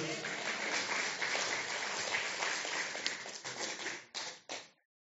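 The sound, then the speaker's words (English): A small group applauds steadily for about four seconds, a dense patter of overlapping claps that thins out into a couple of last separate bursts before stopping. “I reckon that deserves a clap.”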